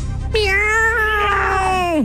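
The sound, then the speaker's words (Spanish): A single long, drawn-out cat meow, loud, holding a steady tone before sliding down at the end, with no other sounds around it. “Hoy es el día del gato.”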